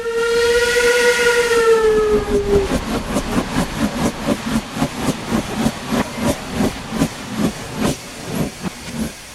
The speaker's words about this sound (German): Eisenbahnfreunde mögen sie, Kinder noch viel mehr. Dampfzüge erinnern an alte Zeiten und begeistern durch ihre Technik. Überall zischt und faucht und dampft und qualmt es.